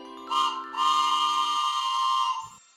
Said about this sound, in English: That choo choo means that the Bible train is pulling into town